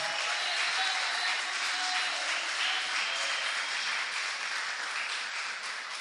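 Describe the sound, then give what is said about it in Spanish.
An audience applauds the Lord Jesus steadily for several seconds, a dense wash of many hands clapping at a fairly even, loud level with no voices standing out. “Aleluya, de un aplauso al Señor Jesús.”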